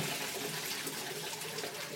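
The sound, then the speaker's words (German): A toilet flushing cat droppings away into the municipal sewer: a steady, loud rush of water with a broad hissing texture that holds for the whole two seconds, with no voices. “der städtischen Abwasserdingens äh, zuführen.”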